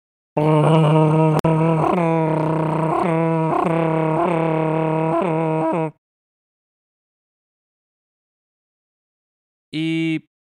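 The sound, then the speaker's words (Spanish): A pickup truck engine, started and switched off while the truck stays parked and does not move, runs with a loud, steady, buzzing drone that wobbles in regular pulses for about five seconds, then stops; after a pause, a short burst of the same drone returns. “Y entonces la camioneta hace, bueno, ojalá se escuche, bueno, ojalá no se escuche, mejor dicho, pero la camioneta hace este ruido.”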